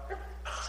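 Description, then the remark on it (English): A single short sneeze bursts out, a quick sharp exhale with a faint lead-in breath before it and no talking over it. “Bless you.”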